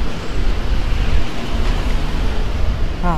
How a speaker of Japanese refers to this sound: 今ですね、結構車の通りが多いんですけど、どうですかね。春日通りですね。